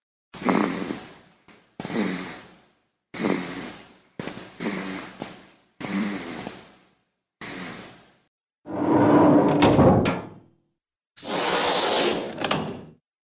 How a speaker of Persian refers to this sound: مادر به صدا گوش داد و گفت عزیز من این دایناسور نیست علی جان صدای کرکره گاراژ همسایه است